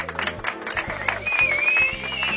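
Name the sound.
applause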